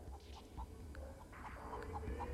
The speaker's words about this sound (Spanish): Y otra vez entra el gallo.